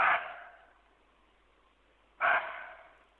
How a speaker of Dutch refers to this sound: En daarom heten ze ook wel het blaffend hert. De Indische muntjak is de meest succesvolle soort muntjak.